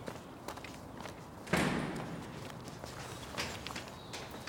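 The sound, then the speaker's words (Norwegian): Steady footsteps crunch along an outdoor path at a walking pace as someone walks up a small hill from a gate toward an apartment block, with a louder scuffing step partway through and faint background ambience. “Så snur han seg, kikker opp mot blokka og starter å gå opp den vesle bakken fra porten og opp mot blokka.”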